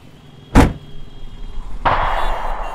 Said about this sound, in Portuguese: Isso foi um tiro, pai? Foi, filha. Você sabe como o Rio é.